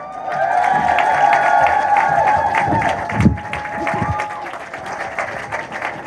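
A crowd applauds steadily with scattered cheers and whistles, a dense continuous wash of clapping that holds level for several seconds before thinning slightly.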